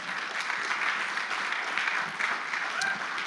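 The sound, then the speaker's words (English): Light, polite golf clap from a small audience, a soft steady patter of many hands clapping for a few seconds without much energy or cheering. “All right, so week one, we get a golf clap for that.”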